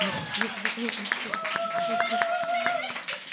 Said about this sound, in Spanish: un aplauso